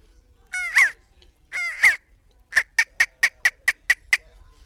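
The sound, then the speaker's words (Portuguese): A man vocally imitates a tropical bird: two drawn-out, warbling squawks followed by a rapid run of about nine sharp, evenly spaced cawing calls, loud. “Depois também há a ave tropical.”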